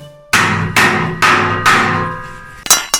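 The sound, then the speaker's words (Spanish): Four loud, ringing metallic hammer strikes land at a steady pace, then a sharp cracking clatter as the hammer breaks. No voices. “Vaya, ya se me ha vuelto a romper el martillo.”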